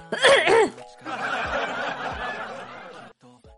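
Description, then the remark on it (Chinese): A man with a cold and a hoarse throat clears his throat: a short voiced, gravelly burst, then a longer rough, raspy rumble lasting about two seconds, ending with a faint grunt. No words are spoken. “本来想把刚刚那段切了的，但是我一听，我听了一下回听，哦天哪，我清嗓子的声音居然那么的有雄性色彩，果断的保留哈”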